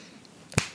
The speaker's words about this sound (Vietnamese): Ôi, mình búng tay nhưng mà nó bị trượt